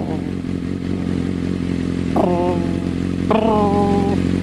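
A motorcycle engine idles with a steady low rumble while its rider sits on it, and twice its pitch rises sharply in short revs, fairly loud, with no one speaking.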